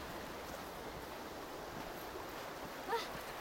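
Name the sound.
river water flowing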